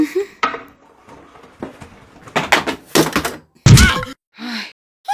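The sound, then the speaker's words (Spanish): Someone loses their balance and tumbles down among chairs: a rapid series of close wooden knocks and clatters builds to one loud, heavy crash, followed by a brief scraping rattle. No one speaks. “Las causas de tu caída, motivada por haber separado del punto fijo lo que se llama el centro de gravedad.”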